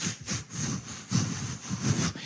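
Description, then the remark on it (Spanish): Sandpaper rasps back and forth across wood in steady, rhythmic strokes during carpentry work, about six passes, fairly loud, with a gritty scratching texture and no voices. “Lijar madera te dan una lija y empiezas.”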